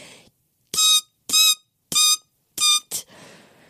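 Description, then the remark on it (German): A voice imitates the loud, high-pitched squealing that a male person often makes on the S-Bahn train: four sharp bursts in a steady rhythm, each about half a second long, followed by a shorter squeak, harsh. “Ich brauche manchmal geräuschreduzierende Kopfhörer im Alltag, weil mich seine ständigen Geräusche, dieses, er macht so ein ganz lautes Fiepen oft, wenn er in der S-Bahn ist, so dieses”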